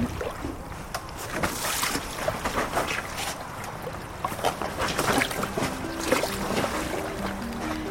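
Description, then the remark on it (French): Two people holding the handles at each end slide an inflatable canoe into the water, with continuous splashing, sloshing and rubbery scraping, plus a few brief faint tonal sounds near the end. “On peut se mettre chacune à un bout, tu vois, il y a des poignées. Et puis on va glisser dans l'eau.”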